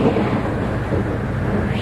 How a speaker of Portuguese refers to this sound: Porém, nesse mesmo instante, rompe o silêncio profundo uma grande tempestade. Parecia o fim do mundo.